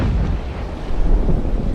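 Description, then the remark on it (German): A loud, deep boom rolls out as a heavy, sustained low rumble like a cannon shot or thunder: a tree crashing down in a forest, felled by frost and snow, with no voices present. “Ein mächtiger Kavum. Ein Baum war umgestürzt, Frost und Schnee hatten ihn gefällt.”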